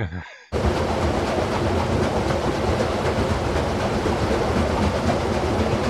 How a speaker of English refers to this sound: was a that, that was a flour mill okay. with a water wheel driving the the the the, the stones and stuff.